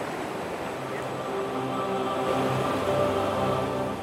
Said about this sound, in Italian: Tutto il fiume sgorga da una cavità nella roccia. È stupefacente.